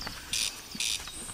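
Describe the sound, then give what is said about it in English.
A corncrake calls twice, each call a dry, rasping burst like a fingernail drawn along a comb, evenly spaced and fairly loud, with no other voices. “And that is the call of the corncrake, sometimes likened to rubbing your fingernail along a fine tooth comb.”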